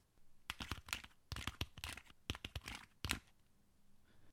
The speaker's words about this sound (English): And this is the sound that, that it makes when you're uh, sliding your fingers across the, the, the fabric that covers the keys.